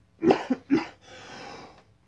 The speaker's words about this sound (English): and coughing, it would appear.